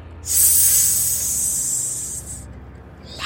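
A loud, sustained hiss from a giant flying serpent, bright and airy, holds for about two seconds before cutting off, then a second hiss starts just as the sound ends. No one speaks.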